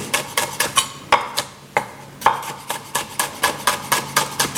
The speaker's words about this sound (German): Ah ja, du schneidest die Zwiebeln. Entweder ganz feine Würfel oder ja. halt jetzt nur Ringe, je nachdem.